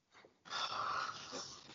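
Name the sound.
dog yawning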